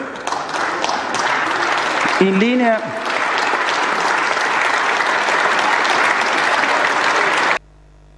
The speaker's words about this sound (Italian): Ecco l'applauso sovrasta la voce di eh, Draghi quando ha detto europeista